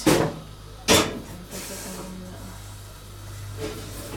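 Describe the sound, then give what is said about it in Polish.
Water on the wet bottom of a pot sizzles against a hot stove in two sharp hissing bursts, then a fainter one, over a low, steady hum, as water is heated to a boil for cooking pasta. “To nic się nie dzieje, to tylko mokre, mokre spód garnka.”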